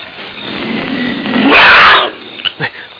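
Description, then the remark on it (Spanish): A tiger growls as it comes sniffing toward a dead horse, a rough rumbling snarl that swells into a loud, raspy roar midway, then breaks off into two short huffing grunts. No one speaks. “Es, un animal malo. Debe ser un tiguerío.”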